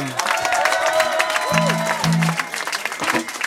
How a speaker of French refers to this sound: Ils sont tout de suite dans le Blues Café sous les applaudissements du public.